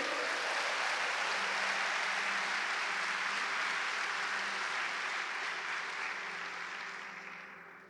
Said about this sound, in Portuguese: Então aplaudo o Senhor para não perder o costume.